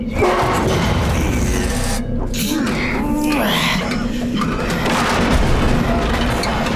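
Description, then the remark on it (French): A heavy crate is hauled and shifted from a mine car onto a monorail, with steady scraping, rumbling and dull knocks running loud throughout, and muffled voices straining underneath. “prêt à déplacer la caisse”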